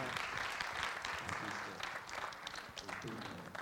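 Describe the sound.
Steady, dense applause from an audience, a broad crackling wash of many hands clapping at once that holds a fairly even loudness for several seconds, with faint voices mixed in.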